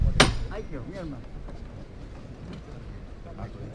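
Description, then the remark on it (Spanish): A single sharp, loud knock from a procession foreman's hammer (martillo) rings out near the start, signalling that the float of the Señor, carried by a brotherhood from Tomares, is about to stop; voices follow, talking over a low outdoor murmur. “al Señor lo han portado mm, un grupo nutrido de almonteños por la relación que tiene la Hermandad del Rocío precisamente con la del Rocío de, Almonte y estos en este caso son de una Hermandad de Tomares, se va a detener, suena el martillo.”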